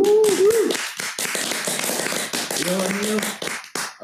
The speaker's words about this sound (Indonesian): Tepuk tangan online yuk.